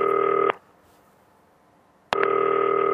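Electronic ringing of a phone call: a steady, buzzing tone sounds for half a second, falls silent for about a second and a half, then starts again, with no one talking.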